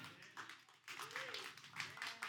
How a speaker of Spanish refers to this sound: Gracias, gracias. Yo sé que nada. Yo creo que ese aplauso es para ella